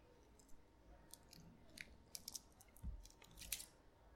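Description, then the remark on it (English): Soft chewing of chewy boba tapioca pearls, with irregular wet clicks and squishes spread across a few seconds over a quiet background, no talking. “Do you think that the sound of my boba chewing is going to be on the recording?”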